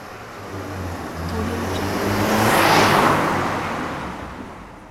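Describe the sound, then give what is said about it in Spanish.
A single car drives past on Rosendo Villalobos street in Miraflores, its engine and tire noise swelling gradually to a peak near the middle and fading away again, with a low engine hum throughout. “Un coche pasa por la calle Rosendo Villalobos rompiendo el silencio de Miraflores.”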